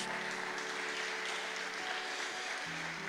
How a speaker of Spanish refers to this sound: Vamos a darle un fuerte aplauso a la palabra de Dios.